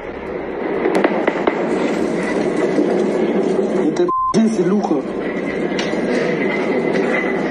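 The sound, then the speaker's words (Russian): Heavy, continuous rumbling roar with a few sharp explosive bursts near the start, loud, while people talk over the din; explosions during an attack on Sevastopol. “Звуки взрывов были настолько сильными, что их слышали в разных частях Севастополя.”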